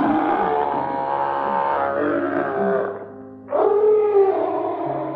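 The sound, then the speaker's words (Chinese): A donkey stands on its hind legs at a window with a hound, an old cat and a rooster stacked on its back. All four cry out at once in a loud, dense tangle of braying, howling and yowling that briefly drops away before surging back, with no talking. “公鸡啊，再飞到老猫的头顶，然后它们呐，同时发出最最最最最恐怖的声音。”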